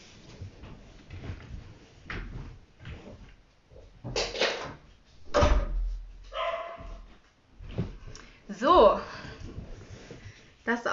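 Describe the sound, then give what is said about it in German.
A door shuts with a single solid thud partway through as the speaker closes it, while a dog barks and yips and a voice talks. “Ich mach mal kurz die Tür zu.”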